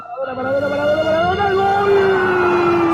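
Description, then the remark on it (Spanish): A loud goal siren wails, its harmonic tone sweeping upward in pitch and then holding steady for a few seconds, prominent. “pero acá no hay ni, sirena.”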